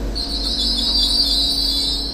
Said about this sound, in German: Der Bahnhof in Hochheim. Drei Gleise, an denen Regio- und S-Bahnen in Richtung Frankfurt oder Mainz halten.